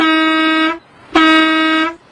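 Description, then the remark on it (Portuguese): The horn of a moving truck that has just arrived honks twice, each a loud, steady blast of just under a second with a brassy, buzzing tone, separated by a short pause. No voices are heard. “É, é, deve ser o caminhão da mudança que chegou.”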